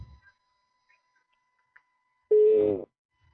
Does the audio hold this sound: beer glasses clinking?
no